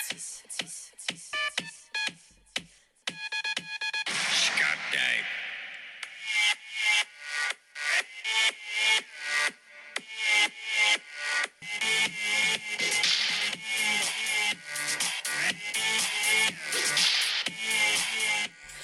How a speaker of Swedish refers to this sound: Ja. Ni hör ju piskan.